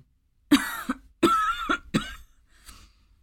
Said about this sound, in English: She coughed and sputtered as they moved down the hall toward the living room.